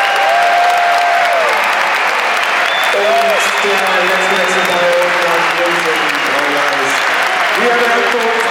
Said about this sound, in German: Das ist dein Applaus, Mats.